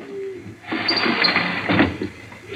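A sudden flurry of fluttering wingbeats as a carrier pigeon with a note slipped under its wing is released from a loft and takes off, loud, a rapid rustling burst that continues for a couple of seconds after a brief quiet start.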